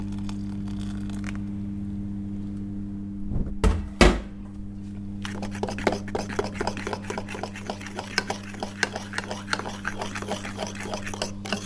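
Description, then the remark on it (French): A couple of knocks against a container, then steady scraping and clinking of a utensil stirring batter in a bowl while boiling milk is added, over a constant low appliance hum. “Ajoutez progressivement le lait bouillant en remuant sans cesse, puis le beurre fondu.”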